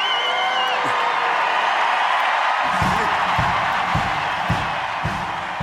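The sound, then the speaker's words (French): A large crowd at an evening event roars and cheers loudly together toward Windsor Castle, about 20 miles away, in a dense, sustained wash of voices, with rhythmic low thumps joining partway through like stamping or drumming. “le prince régent a beau haranguer la foule, l'inciter à crier pour que le vent porte les acclamations jusqu'au château de Windsor”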